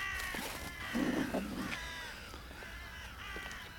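Several ravens caw in a ragged, overlapping chorus, harsh calls repeating, with one louder croak near the start and steady outdoor background noise throughout.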